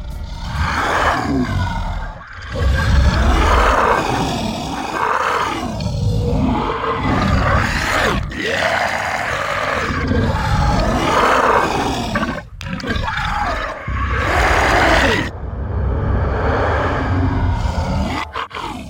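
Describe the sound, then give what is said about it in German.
A designed monster roar sound effect called Monster Creep, built from a Foley recording of a crisp being bitten: loud, dense, growling roars swell and fade in several long waves over about nineteen seconds, with brief gaps between bursts and no one speaking. “Wir erklären euch jetzt, wie der Sound Monster Creep zustande kam.”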